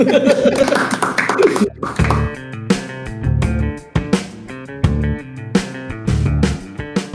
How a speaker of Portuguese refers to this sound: Palmas, professor!